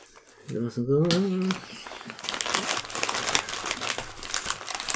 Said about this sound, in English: You're making horrible sounds the microphone, …, with your chip eating.